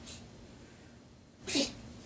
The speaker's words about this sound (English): Things like uh, a cat having a hairball. You okay, Smudge?